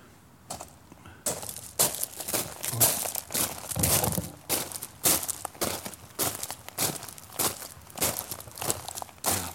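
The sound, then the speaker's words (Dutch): Steady footsteps crunch through a gravel box in soft sneakers, made as a sound for a radio play, each step a crisp grinding scrunch in an even walking rhythm of roughly two steps per second, with no talking. “als ik nu toch even door het grind ga lopen.”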